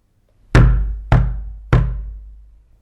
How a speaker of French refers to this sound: Ce soir-là, l'ours entendit frapper à sa porte.